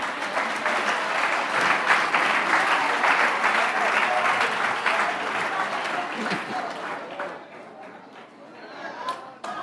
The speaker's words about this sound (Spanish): Hagamos un aplauso al Señor.